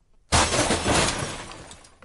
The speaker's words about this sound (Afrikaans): Die rak het van die muur afgeval.